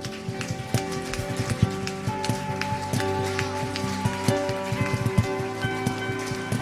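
audience applause

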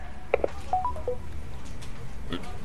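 telephone keypad dialing tones

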